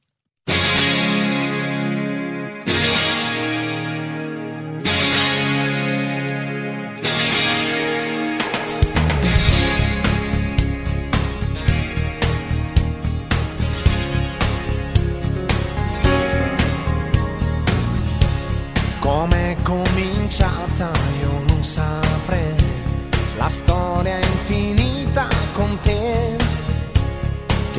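A pop song plays loud and clear, opening with three long sustained keyboard chords before a full band with a steady driving beat kicks in, a vocal melody soaring over it.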